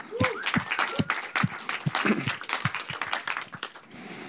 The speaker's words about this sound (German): Danke, dass du da bist und dafür hast du, glaube ich, erstmal einen tollen Applaus verdient.